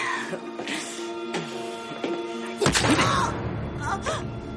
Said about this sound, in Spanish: Él le clava en el vientre el atizador de la chimenea y comienza a golpearla contra las paredes.